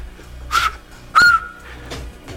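Two loud, piercing whistles made with fingers in the mouth: a short sharp blast, then a longer one that holds a steady high pitch before cutting off, with no talking.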